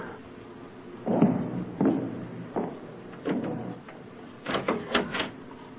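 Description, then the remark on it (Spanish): A series of mechanical clunks and scrapes as a key turns in a locked house door and the door is pulled open, with a few sharper clicks near the end; no talking. “¿Por qué echaste llave a la puerta?”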